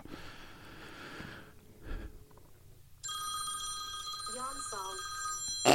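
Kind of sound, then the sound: signal or alarm, telephone ringing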